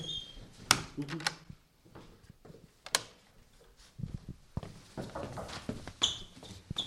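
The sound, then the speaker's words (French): A door is handled, with sharp latch clicks, scraping and muffled thumps as it opens and then shuts, spread over several seconds with no talking. “ouvre, la porte et ferme-la. Ah, ah, bah, On va prendre le bruit.”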